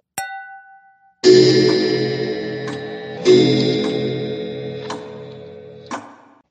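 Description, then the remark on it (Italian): A clock ticks briefly, then a loud, resonant chime rings out and fades, striking again a couple of seconds later while soft ticking clicks continue beneath the lingering tone; the clock is striking eleven. “E l'orologio segna le 11.”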